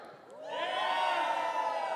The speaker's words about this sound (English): Don't give me a Raiders cheer, all right? I need a real cheer, all right? Ready? All right, ready?